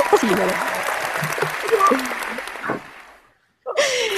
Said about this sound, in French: Ils sont où les applaudissements